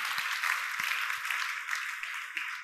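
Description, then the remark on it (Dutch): A crowd claps steadily and densely, a sustained wash of many hands that stays fairly even in loudness throughout, with no voices standing out. “Dus ik wil in ieder geval daarvoor God danken en willen we even met elkaar God daar een applaus voor geven, want het is gewoon geweldig dat hij erin ziet.”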